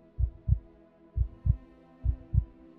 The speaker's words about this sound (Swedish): Du ser människorna här. Det är nästan så du kan höra deras hjärtslag.